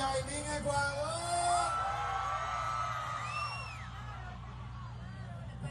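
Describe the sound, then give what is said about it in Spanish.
A large concert crowd in Ecuador cheers and whoops continuously, acclaiming a performer, with high excited yells and whistles rising over a steady roar and a low rumble underneath. “el público la aclamó.”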